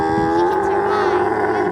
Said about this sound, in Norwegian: kameler ser veldig dumme ut når de skriker sånn. Altså. Men det hadde vi gjort også hvis vi skrek sånn. Det er som en sliten hest.